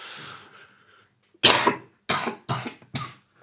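A burst of four harsh coughs in a row, the first loudest and the rest coming in quick, uneven succession, following a faint fading tone with no talking over them.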